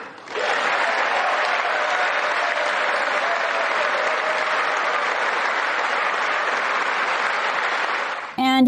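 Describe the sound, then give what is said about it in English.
A large audience at the State of the Union address applauds steadily for about eight seconds, a dense, even wash of clapping at constant loudness that cuts off abruptly as a man's voice begins speaking. “So the Democrats again refuse to applaud for a young black girl who receives a scholarship.”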